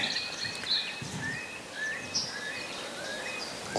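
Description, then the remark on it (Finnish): Faint calls of a Eurasian curlew drift across an open field, mixed with scattered chirps of other birds over a soft outdoor background hiss. “Se on ollut mun, oli mun haave, että kuovi kuuluisi ja, ja nyt se sitten kuuluu.”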